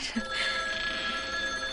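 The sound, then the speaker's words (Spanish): A telephone rings with a steady, bright electronic tone that holds without a break for the whole moment, fairly quiet and with no voices over it. Flap picks up the phone and hangs it up. “Flap descolgó y colgó el teléfono.”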